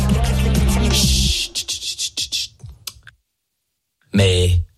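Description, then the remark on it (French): Rapid, irregular computer mouse clicks rattle off for a couple of seconds right after someone speaks, then a brief silence before a voice returns. “J'arrête d'entendre des clics souris là,”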